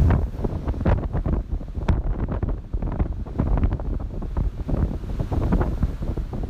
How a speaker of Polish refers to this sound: morze jest mocno wzburzone. Do tego wiatr wieje z tego kierunku